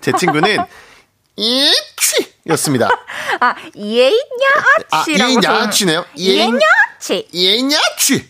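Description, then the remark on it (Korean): Amid lively talk and laughter, a voice mimics a strange sneeze several times, short sharp bursts repeated between chuckles and conversation. “그 재채기는 네. 특이한 소리가 많아요.”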